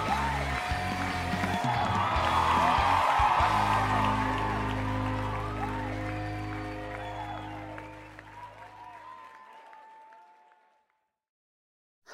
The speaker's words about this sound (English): Okay, who's ready to prosper in the presence of God? Ladies and gentlemen, put your hands together and help welcome your friend and mine